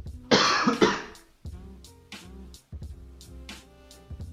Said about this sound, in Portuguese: Um segundinho que eu vou dar uma tossida e tomar um chá.